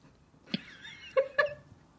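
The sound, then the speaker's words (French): A cat meows a few times in short, high, tonal calls, clear, with quiet background between them and no one talking. “c'est toujours le chat, le chat wins.”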